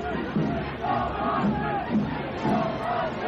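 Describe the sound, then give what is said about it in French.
A large crowd at the 1968 Saint-Jean night parade in Montreal chants the slogan "Trudeau vendu" in unison, repeating it rhythmically several times, loud and dense with overlapping voices. “Mais ce qui couvre le descripteur de la parade, Henri Bergeron, c'est Trudeau vendu, Trudeau vendu.”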